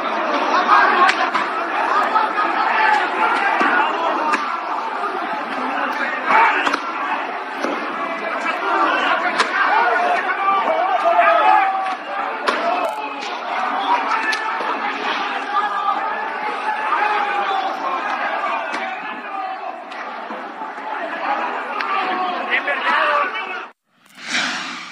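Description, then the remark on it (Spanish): A chaotic brawl inside the Corregidora stadium during the Atlas vs Querétaro match, matchday 9 of the Clausura 2022 tournament: a dense, continuous roar of fans shouting and screaming over one another, loud and unbroken for about twenty-four seconds before cutting off abruptly. “Así se escuchó esta riña dentro del estadio de la corregidora.”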